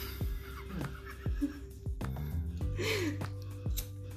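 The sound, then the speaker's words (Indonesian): A human voice imitates a noisy group of pigs foraging for food in the daytime, with a run of short, fairly loud grunts in an uneven rhythm and a brief squealing whine in the middle. “Babi kebon hingar bingar rombongan babi mencari makan di siang hari”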